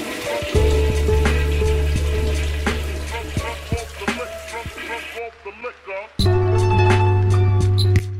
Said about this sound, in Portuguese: Você está ouvindo? Descarga!